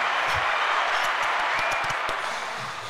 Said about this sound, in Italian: Applauso regina per cortesia.